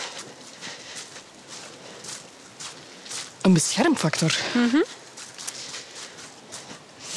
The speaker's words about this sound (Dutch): We gaan dan een stukje wandelen.